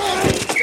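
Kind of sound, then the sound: impact, football pads colliding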